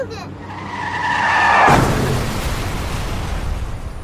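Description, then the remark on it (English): A car's tires squeal in a rising screech for over a second, then a loud, sudden crash bursts out, followed by a long rumbling wash of debris noise that slowly fades. “Car crashes are a leading killer of children 1 to 13.”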